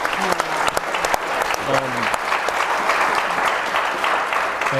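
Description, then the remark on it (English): An audience applauds steadily at the end of a panel discussion for about five seconds, a dense, even patter of many hands clapping, with a few faint voices murmuring underneath. “Uh, let me d- ask everybody to give them a round of applause.”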